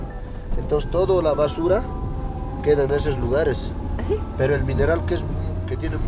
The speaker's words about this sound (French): Là, on est sur une route où il y a énormément de camions.